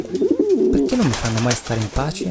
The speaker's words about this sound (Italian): Dannati piccioni.